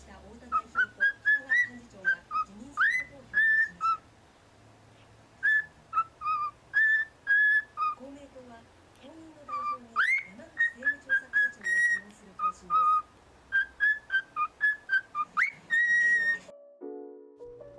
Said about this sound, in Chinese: 而玄凤鹦鹉呢，也是非常喜欢唱歌的鸟种之一哦。他们唱歌的声音可是风靡了全世界呢，那就让我们一起来听一小段玄凤鹦鹉唱歌的好声音吧。